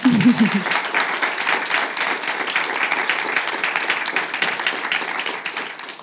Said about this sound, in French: Vous pouvez l'applaudir, n'hésitez pas.